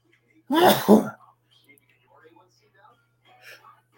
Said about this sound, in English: Hold on, I got to sneeze.